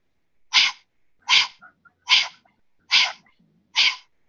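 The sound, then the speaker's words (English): Five sharp, forceful breath exhales in a lung-building breathing exercise, pushed out with the tongue stuck out as far as possible and the belly pulling in, evenly spaced about once per second, loud, with faint quick inhales between them and no talking. “basically you put both hands on your belly, you stick the tongue out as far as you can, and when you make the sound, the belly goes in.”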